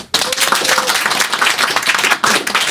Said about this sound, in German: deswegen war der Applaus ja. nicht sonderlich euphorisch